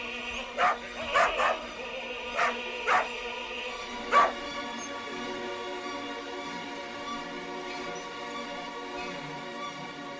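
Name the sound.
dachshunds barking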